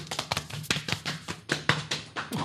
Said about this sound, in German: Das heißt, du nimmst deine Hände und klatsch dich wirklich von oben, von den Oberarmen über deinen Bauch bis hinunter, letztendlich da zu deinen, äh, zu deinen Waden oder bis zum Schienbein. Du klopfst dich ab, so